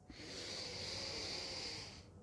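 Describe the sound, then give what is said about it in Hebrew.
A single long, steady breath drawn in during a guided exercise of focusing on the breath, an airy hiss lasting about two seconds, with no talking. “קחו את הפוקוס האנרגי, האנרגטי, שימו אותו על הנשימה שלכם ותנשמו בפוקוס.”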